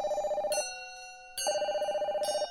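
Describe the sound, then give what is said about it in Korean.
An electronic telephone rings in two clear bursts with a short pause between, a warbling, trilling tone, fairly loud, with no voices; an incoming call from a friend at night. “그리고 그날 밤 친구에게서 전화가 걸려왔다.”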